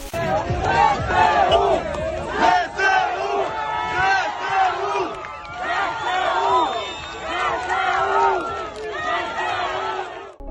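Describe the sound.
Residents of Kherson, Ukraine, cheer and shout jubilantly as they welcome Ukrainian armed forces: many voices overlapping in loud, sustained, excited yelling that rises and falls in waves throughout.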